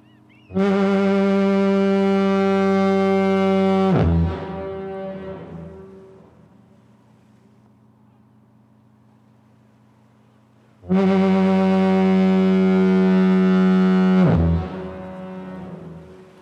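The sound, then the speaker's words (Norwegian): Two long, deep lighthouse foghorn blasts on the granite by the sea at Norway's southernmost point, each about three and a half seconds, separated by a pause in which the first blast echoes and fades away before the second sounds just as loud. “Og legg merke til den utrolige etterklangen etter hvert støt. I radio er det mektig nok, men på granitten ute ved havet på Norges sydligste punkt er inntrykket så sterkt at vi skjønner at mennesker må ha flere sanser enn vi bruker til daglig.”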